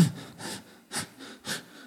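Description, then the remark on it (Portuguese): Quick, shallow, stressed breathing high in the neck, about four breaths in a steady rhythm roughly half a second apart, each a short airy rush, with no talking. “Ou seja, a respiração está curta, está aqui no pescoço.”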